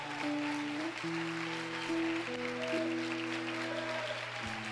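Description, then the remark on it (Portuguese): An audience at a church in Brasília applauds as a couple is received as deacons, a steady, dense wash of clapping that runs the whole time, with sustained keyboard chords holding and shifting underneath. “Pode aplaudir o Senhor.”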